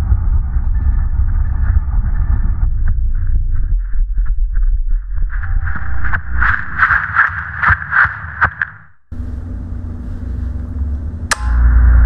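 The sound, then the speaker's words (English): A metal baseball bat repeatedly smashes against the stone Ray Monument, a quick run of about seven sharp, ringing strikes over a low steady drone, followed by one lone clang near the end. “Someone started smashing the Ray Monument with a metal bat.”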